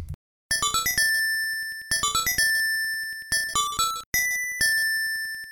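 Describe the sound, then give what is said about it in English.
A bright, chiming video game jingle played on the in-game bell instrument, a short melodic phrase of rapid ringing notes repeated several times with brief pauses between. “play the bell, it doesn't play the Ballad of the Windfish. It plays okay. a weird little bell.”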